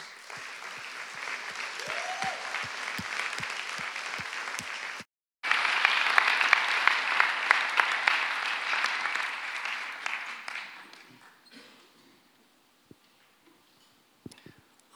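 Sustained applause from an audience welcoming two men onto the Gospelhaus stage, a dense crackle of many hands clapping that breaks off briefly, swells again, then fades into scattered claps and near silence.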